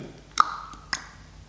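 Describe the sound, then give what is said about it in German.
Two crisp tongue clicks about half a second apart, each a hollow, sharp pop; the first leaves a brief ringing tone behind it. No one speaks. “Da schnallst wir mit unserer Zunge.”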